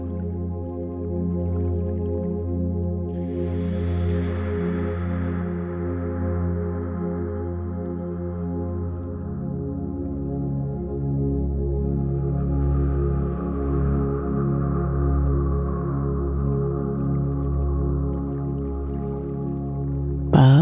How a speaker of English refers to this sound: the gentle noises of the river as you sit here peacefully and quietly.